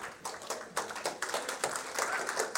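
A small audience claps in a brief, scattered burst of applause, the dense overlapping hand claps fairly soft, continuing steadily for a couple of seconds with no voices.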